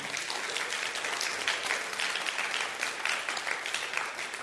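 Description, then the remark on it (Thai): A church audience claps for God during a sermon in sustained, dense applause for several seconds, steady and fairly loud throughout, with no voices standing out. “ตบมือพระเจ้าดีไหมครับ”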